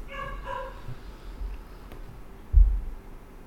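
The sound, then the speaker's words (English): A dog gives two quick, sharp barks, followed by a stretch of quiet background noise and a dull low thump near the end. “whoever's dog is barking, maybe they got a tip for us.”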